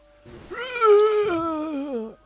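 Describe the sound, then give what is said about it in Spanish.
A single drawn-out, ugly zombie scream from behind a corner, a wailing cry that holds steady, then sags and trails off in a strained, guttural tail. It is fairly loud, with no talking around it. “Porque ya un grito detrás de la de la esquina y es un grito bastante cultural, feo, sale de, un, de unos pulmones muertos seguramente”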